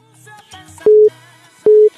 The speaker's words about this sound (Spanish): Siguiente llamada, teléfono.